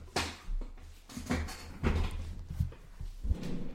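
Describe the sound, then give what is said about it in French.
An office chair being raised, its height adjusted: a series of knocks, clunks and short mechanical clicks spread over a few seconds, with no one speaking. “Attendez, je vais remonter la chaise.”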